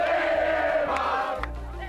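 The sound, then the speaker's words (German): A large crowd in Berlin cheers and shouts at a celebration of the Mark's arrival on 1 July, a dense, loud and continuous roar of many voices that carries on without a break. “Als dann die Mark am 1. Juli kommt, gibt es Jubelfeiern in Berlin.”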